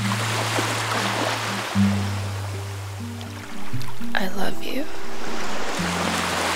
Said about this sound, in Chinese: 我就特别在这个前奏的部分去加入这个海边的浪潮声。